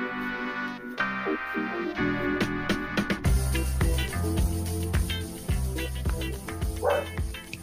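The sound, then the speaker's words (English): A dog barks several times in short, sharp bursts, mixed in with steady background music that grows fuller and bass-heavy partway through. “Whose dog was that? That was mine.”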